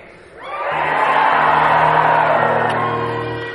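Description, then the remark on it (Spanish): An audience shouts a cry of faith together in a loud, sustained collective roar that swells in quickly and holds for a few seconds, with a low steady hum underneath, before easing slightly. “A ver, quiero que, quiero que des un grito de fe.”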